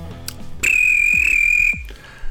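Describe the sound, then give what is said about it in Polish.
A referee's whistle blows one loud, steady blast lasting about a second during a basketball game, as players Draymond Green and LeBron James argue and are separated, over low background thumps and rumbling crowd noise that continue after it stops. “Rozległa się gwizdek sędziego, oni biegną, żeby rozdzielić kłócących się i lekko szarpiących Draymonda Greena i Lebrona Jamesa.”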